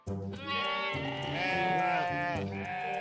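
Sheep bleat loudly, several wavering, overlapping cries running together for a few seconds with no talking.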